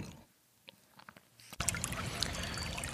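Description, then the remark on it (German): After a quiet second and a half with a few soft knocks, the steady babbling rush of the Heisterbach, a small stream in the Siebengebirge, swells in fairly loud, continuing unbroken with no voices. “Ja, und da hören wir gerade im Hintergrund den Heisterbach. Das ist ja der Heisterbach, das ist ein kleiner Bach hier im Siebengebirge.”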